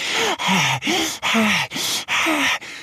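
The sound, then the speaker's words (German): A voice imitates a small duck's heavy panting after running: six quick, loud, breathy huffs in a steady rhythm, each with a slight voiced groan, with no other talking. “Als sie ankommen, atmet die kleine Ente ganz schwer und ihr Herz klopft laut.”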